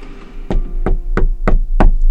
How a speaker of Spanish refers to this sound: Toco la puerta, o más bien, me han tocado la puerta y voy a abrir.